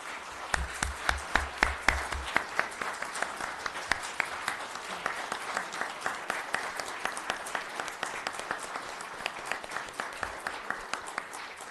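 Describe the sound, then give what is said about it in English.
A standing crowd bursts into sustained applause for the city's police officers, many hands clapping in a dense, steady patter that carries on for several seconds, with a few louder claps standing out. “Let's stand and give them a round of applause.”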